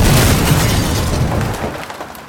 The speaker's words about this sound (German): Jedenfalls war ich auf dem äh, Polenmarkt in Wuhan und habe mir dort China-Böller gekauft und damit den Garten umgegraben.